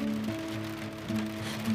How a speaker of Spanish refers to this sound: Aguantando la lluvia y este frío de maldito que se cuela por los huesos, me gusta pensar que tengo un poco de su fuerza.